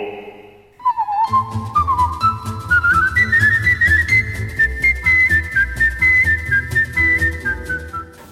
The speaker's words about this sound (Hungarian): török indulót fütyüli. Szintén Tánza Fesztivál.